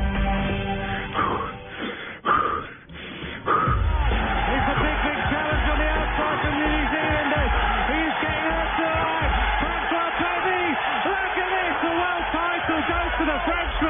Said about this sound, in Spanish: Sonido en directo en este momento de los mundiales de ciclismo que se están eh, corriendo en Inglaterra. En París, perdón, en, las afueras de París.